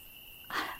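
Crickets chirp on a summer night in a steady, high, continuous trill at low volume, then a soft rustling whoosh of distant wind and rustling leaves swells in about halfway through and lingers beneath them. No one speaks.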